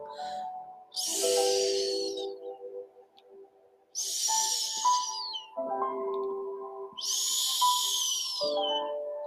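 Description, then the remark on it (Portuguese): A voice imitates the snoring of little mice sleeping: three breathy, hissing snores at a slow, even pace, each about a second long, over soft sustained background music. “Os ratinhos estão a dormir. Ressonam.”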